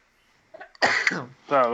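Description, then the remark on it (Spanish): A single sharp sneeze bursts out after a quick intake of breath, followed by a brief voiced sound as someone speaks. “Salud. Gracias.”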